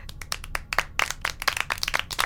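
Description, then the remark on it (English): A crowd at a Clark Communications orientation applauds with many overlapping hand claps, sharp and bright, forming a steady, moderately loud patter that continues without talking for a couple of seconds. “Clap again.”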